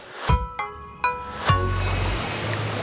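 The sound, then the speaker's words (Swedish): Water sloshes and splashes in the large cold pool of the Ekenäs indoor swimming hall, a few sharp slaps giving way to a steady wash of lapping water echoing off hard walls, moderately loud. “Jag är i Ekenäs simhall just nu och har faktiskt tagit mig ner i den stora kalla bassängen med mikrofon och sändningsutrustning.”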